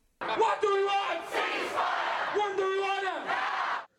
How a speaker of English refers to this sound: Now, now, what you just heard then. That was all the, the anti Jew uh, brigade, the so called pro Palestinians, they're marching in the streets, and she's one of them. From the river to the sea.